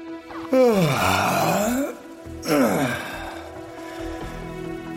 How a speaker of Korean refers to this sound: 잔뜩 얼굴을 일그러뜨리며 왕이 하품했다.